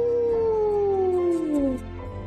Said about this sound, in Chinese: 夜晚的大海很平静，霸王龙的吼声传得很远很远。